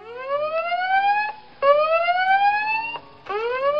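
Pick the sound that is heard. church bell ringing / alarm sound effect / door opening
alarm sound effect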